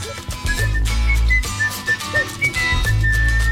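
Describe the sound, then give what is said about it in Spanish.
A bright, clear whistled melody rides over the backing track of a 1972 hit song with steady bass and rhythm, the whistle carrying the tune in short sustained notes throughout. “Aquí, como cursa voy, el rey del silbido.”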